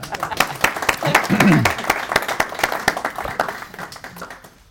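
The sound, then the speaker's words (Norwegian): An audience breaks into applause, a dense patter of many hands clapping at a steady level before tapering off, with a few voices and brief cheering mixed in. “Jeg syns, jeg syns det fortjener en applaus.”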